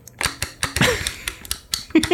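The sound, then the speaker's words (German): A rapid series of sharp mechanical clicks, the button of an old ball computer mouse pressed on purpose again and again at an uneven pace, with a faint voice briefly murmuring in the background. “Hier, Achtung für den Cutter, das ist nicht ab, äh, das ist absichtlich, das Klicken.”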